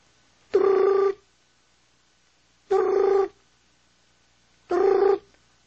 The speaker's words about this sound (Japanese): 電話が鳴った。